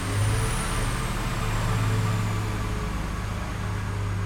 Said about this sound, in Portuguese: Não, calma, tá, é que está, neste momento, está tá, tá aqui um, um, um trator um, a escavar um buraco onde está.